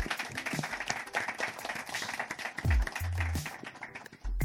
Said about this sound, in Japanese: 拍手、はいイェイいらっしゃい